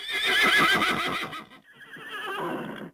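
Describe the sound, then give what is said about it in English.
A farm horse neighs loudly, a long shaky whinny that breaks off, then a second quieter, fluttering whinny follows, with no voices present. “Sometimes forgetful Fred forgot to let the horses into the right pasture.”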